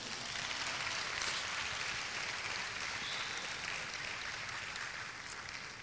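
An audience applauds the name of the Lord at a sermon, a dense, continuous wash of many hands clapping at once, sustained at an even level for several seconds with no voices rising above it.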